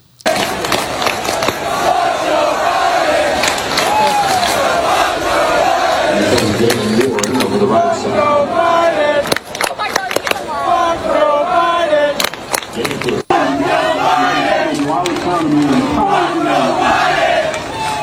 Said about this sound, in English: For our listeners on the podcast, this is coming from an Oklahoma State football game out there in Stillwater, Oklahoma. These are their college football fans with a chant during the football game.